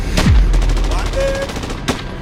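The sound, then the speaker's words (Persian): Gunfire crackles: a loud, sharp shot opens, followed by a rapid patter of fainter shots, then another strong blast near the end. “بعدش هم سر صدای تیراندازی سر صدا رو میشنوی”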